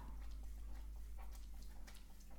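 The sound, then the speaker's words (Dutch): Wet smacking and slurping as a dog licks a person's hand, a quick run of soft irregular laps over a steady low hum, with no voices. “Dit geluid is jouw hond in, mijn, in mijn hand aflicht.”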